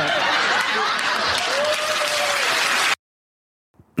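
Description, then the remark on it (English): A TV show studio audience claps loudly in a dense, steady burst for about three seconds, with a few cheering voices mixed in, then the applause cuts off abruptly into silence. “so, if you're watching the video of that, um, all the audience clapping a public boob feeling is a bit unusual.”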